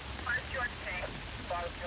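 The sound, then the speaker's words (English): Heavy rain pounding on the pavement of an alley in Hollywood before dawn, also striking a car's windshield, a dense, steady hiss that fills the whole clip, with a few faint, brief tonal chirps over it. “Rain was pounding into the pavement like roofing nails, pebbling the car's windshield with flecks of red and blue light.”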